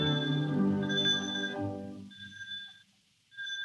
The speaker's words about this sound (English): We hear the sound of the doorbell, an old fashioned pull bell whose continued tinkling surprises Miss Susan.